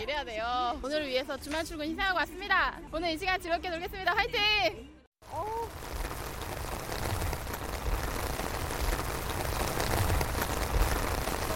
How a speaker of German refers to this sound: Doch da ziehen dunkle Wolken auf, die sich in einem heftigen Regenschauer entladen.